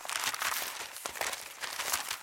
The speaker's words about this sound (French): On confectionne nos présents la veille au soir, les emballant sans soin dans du papier journal